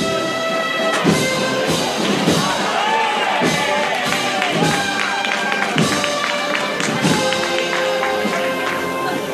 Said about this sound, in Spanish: Y ese aplauso es porque se ha detenido. Se corta la marcha.